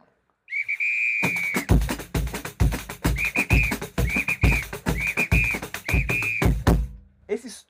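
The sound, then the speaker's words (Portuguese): A samba whistle sounds one long shrill blast, then four short evenly spaced toots, riding over loud, busy drum hits that pound throughout. “Aí ah, tem um apito ainda, né?”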